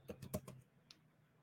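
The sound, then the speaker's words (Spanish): A quick burst of keyboard typing, several sharp clicking keystrokes in a rapid cluster, then a single stray tap after a short pause, fairly quiet with no voices. “El teclado no, no, no se aguanta.”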